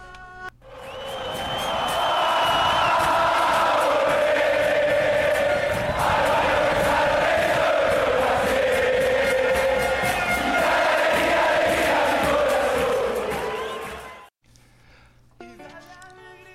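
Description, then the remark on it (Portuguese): A large crowd of San Lorenzo football fans in Argentina sings a club chant in unison, loud and steady with a rising and falling melody for about fourteen seconds, then it cuts off abruptly. “Então, vamos ouvir um trechinho também agora da música do São Lourenço.”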